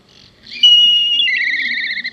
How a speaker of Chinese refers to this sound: 那大家以后到基隆港边啊，或北海岸观察老鹰的时候，它如果低空掠过，它就会听到这个黑鸢的。哦，蛮奇特的叫声。